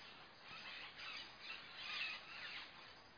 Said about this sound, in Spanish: Hay veces que cuando estoy grabando, bueno, cuando estoy grabando mi oración, que es lo que estoy haciendo ahora, siento que rompo la armonía tan hermosa del silencio, del canto de las aves.